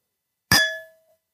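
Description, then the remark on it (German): A single clink of two glasses touching in a toast, one of them a Schott glass, fairly loud, with a short bright ringing tone that fades away within half a second. No one speaks. “Ich kann mal gucken, ich habe hier noch ein Prost. anderes Glas stehen. Ich kann mal versuchen, so einen Kling zu machen für unsere Zuhörer hier.”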